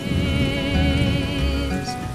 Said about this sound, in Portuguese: O evento será considerado um enorme sucesso apesar da falta de infraestrutura e o lamaçal formado pela chuva que cai nesse instante.